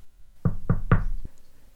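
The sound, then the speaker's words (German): Three quick, hollow knocks on an old bucket, evenly spaced, each with a short resonant ring, followed by a faint trailing thud. “Hase Hugo lachte laut und hielt sich den Hasenbauch, klopfte an den Eimer”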